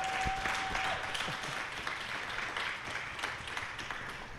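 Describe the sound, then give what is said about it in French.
An audience applauds a band of a lead guitarist, a singer and a rhythm guitarist, a dense wash of many hands clapping at an even, moderate level for several seconds, with a thin steady tone faintly audible at the very start. “Alors on les applaudit.”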